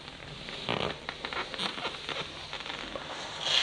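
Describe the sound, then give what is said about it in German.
Soft leather boots worn on the legs creaking and rustling, a steady run of scuffing, squeaky friction sounds with small bursts, quiet and continuous with no voice. “Und erregt dich dieses weiche Material, wie es diese speziellen Geräusche macht.”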